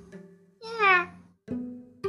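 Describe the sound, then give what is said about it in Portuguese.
A single drawn-out meow, clear and close, most likely a person's voice imitating a cat, with low voiced murmuring before and after it. “Miou também.”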